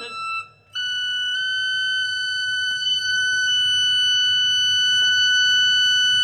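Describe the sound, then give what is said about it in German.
A single very high organ pipe tone, the last and highest note played during organ tuning, sounds steady and piercing, cutting off briefly near the start before sustaining unbroken, with a faint low rumble beneath it. “Das war jetzt dann der letzte und höchste Ton.”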